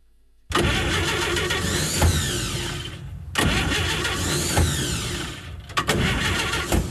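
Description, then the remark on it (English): A car engine cranks repeatedly without catching: two long grinding attempts separated by a brief pause, then a third short burst, loud with no voices. “I'm sure this is not battery, just cash flow.”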